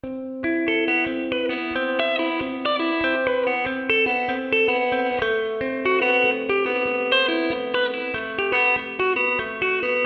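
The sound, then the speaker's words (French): A slow electric guitar riff, played slowly, with open-string notes layered over a steady, ringing drone note heard each time, with effects-laden tone and overlapping sustained notes at an even, moderate volume; no one speaks. “dans son riff, je vais vous le jouer doucement”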